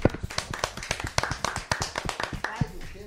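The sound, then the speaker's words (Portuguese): A short round of applause for a birthday: hands clapping in quick, slightly uneven bursts for a few seconds, fairly loud, like a small group clapping together. “Então, ah, saúde de palmas. Meus parabéns.”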